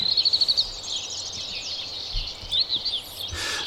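Italian sparrows chirp steadily in the background in a village along a small river, a busy chatter of quick, high tweets with a short rapid burst at the start and another partway through, with no voices.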